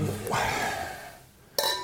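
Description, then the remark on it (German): Wine glasses holding Sul Vulcano, a 2016 Italian white wine from Etna in Sicily, clink together in a toast: a bright ringing chime that sustains with clear high harmonics, following a softer earlier clink and quiet background voices. “Nimm die Gläser mit.”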